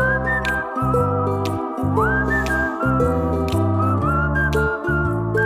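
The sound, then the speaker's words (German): Someone whistles a bright melody with a rising slide, carried over a busy instrumental backing with a steady bass pulse. No one speaks; the whistling stays loud and continuous throughout. “Pfeif noch ein bisschen weiter.”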